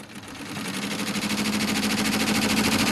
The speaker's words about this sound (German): Es hört sich an wie bei einer normalen Nähmaschine. Genau, ja. Also ein bisschen schneller. Und zack, zack, zack werden ja ein paar Initialien gestickt. Genau, das wird jetzt ein Monogramm für eine Kundin.